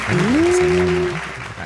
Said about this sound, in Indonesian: Tepuk tangannya.